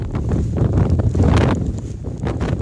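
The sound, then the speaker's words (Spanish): Strong wind at a forest fire in the Sierra de Gádor, Enix, Almería, Spain, where Infoca firefighters are working, roars steadily, a loud low rumble buffeting the microphone with gusty surges throughout and no voices. “El rugido del viento está complicando el trabajo del Infoca”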